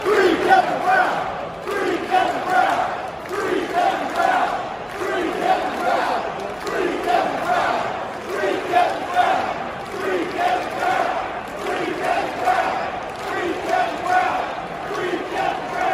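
A large baseball crowd at Camden Yards chants in unison during a Tuesday night game, a loud rhythmic outcry rising and falling in repeated waves for the whole stretch, many voices shouting together with steady energy.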